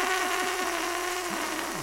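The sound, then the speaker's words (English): A balloon slowly letting out its air, a continuous breathy hiss with a thin, wavering squeal that dips and rises in pitch several times. Steady and fairly loud throughout, with no voices. “Is there just a noise of a a balloon slowly releasing its air.”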